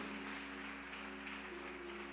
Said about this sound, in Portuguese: Se é para o Senhor, pode aplaudir com, com alegria em nome de Jesus